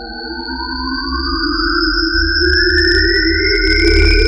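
A steady electronic-sounding hum coming from inside an object, picked up by a microphone less than eight metres away. It has several layered tones, and its pitch slowly glides upward as it swells slightly louder over a low rumbling drone; no one speaks.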